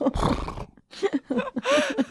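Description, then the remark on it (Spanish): A person imitates a horse's neigh, a loud, wavering whinny in a few bursts with a rough, breathy start and a high, quavering finish. “con relinchada. Creo que prefiero relinchar que locutar fútbol.”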